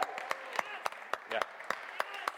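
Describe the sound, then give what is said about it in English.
An audience applauds with steady, evenly spaced claps ringing out over a murmur of voices, as the men applaud the women, who stand, on Mother's Day. The clapping is moderate in volume and lasts a couple of seconds. “If I can just have all of the ladies, why don't you guys all stand up, and us men will give you a large, a loud applause.”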